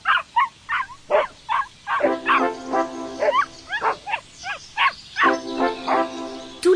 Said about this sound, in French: Un chien qui bat de la queue en aboyant, les oreilles toutes droites, montre sa joie du moment et son impatience.